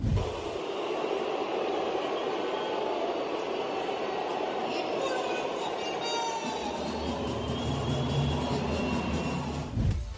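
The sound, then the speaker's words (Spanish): A huge stadium crowd boos a Mexican music group playing at halftime of a match, in a loud, sustained roar that fills the whole stretch without letting up, a dense wall of voices heard from within the crowd. “que lamentablemente, amigos, fueron abucheados.”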